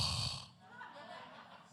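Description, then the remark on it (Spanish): A person imitates the snoring of a pastor during a church service, with one loud, rough snorting breath that quickly fades into a quieter, breathy rasp. “Y yo dije, Dios mío, yo reprendo al diablo y yo espero que ese no sea el pastor roncando detrás de mí.”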